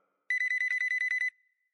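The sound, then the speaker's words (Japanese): A telephone rings with an incoming call from an unfamiliar number, in a rapid burst of about a dozen bright electronic trills lasting roughly a second, fairly loud, then cuts off with a faint fading tone. No one speaks. “そんな中に電話が鳴った見覚えのない番号からだ”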